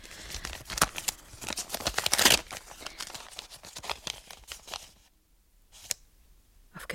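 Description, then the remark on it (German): Crisp paper rustling and crinkling, building to a sharp ripping burst as an envelope with a typewritten address is torn open in a bedroom with the door shut and bolted, then a pause and a few scattered paper rustles. No one speaks. “Ich weiß nicht, wieso ich die Geistesgegenwart hatte, den Umschlag nicht eher aufzureißen, bis ich mich in meinem Zimmer befand, die Tür geschlossen und den Riegel vorgeschoben hatte.”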